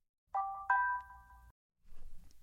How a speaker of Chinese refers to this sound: 正在这个时候，房东发来了一个短信，说有事要谈。